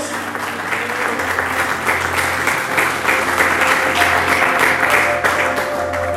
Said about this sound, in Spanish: Alguien dígame amén y apláudale fuerte a nuestro Dios.